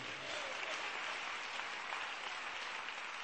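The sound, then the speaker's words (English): A church audience claps steadily during a sermon, a dense, even patter of many hands with no pauses and no voices standing out, holding at a strong, constant level throughout. “Clap, oh, clap. CEM brings my preaching anointing. This clapping is envious.”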